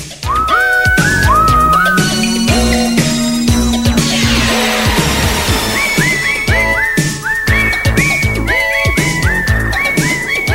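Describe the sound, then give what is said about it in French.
A whistled melody carries the tune all the way through in place of lyrics, over a loud, busy instrumental backing, the bright pitched notes rising and falling in short repeated phrases. No one speaks. “Moi siffler tout le long.”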